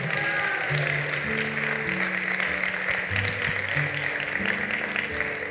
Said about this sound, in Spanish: Vamos, si usted lo cree, denle un aplauso al Señor.